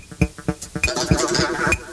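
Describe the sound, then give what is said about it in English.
A pencil drops and clatters in a series of about six light, bright wooden taps, spaced fairly evenly over two seconds, with a soft rustling texture filling the gaps after the first few hits. “He heard the sound of a pencil dropping.”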